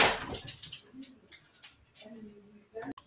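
A dog makes a few short, high whining noises with brief pauses between them, fairly quiet, after a sharp clattering start. No one speaks.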